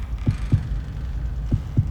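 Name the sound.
beating heart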